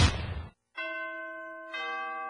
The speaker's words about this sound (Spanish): En la radio del diario ya se escuchan las campanas navideñas. La música y la alegría de la Navidad ya llegó.